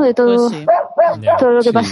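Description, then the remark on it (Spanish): A dog barks a few times while a person keeps talking over it, the barks partly buried under the voice; the person is out on a walk where the dogs are barking. “Perdón por el perro.”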